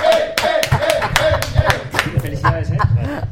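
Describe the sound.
An audience claps in a quick, uneven burst of many overlapping sharp claps, fairly loud throughout, with voices calling out underneath the applause.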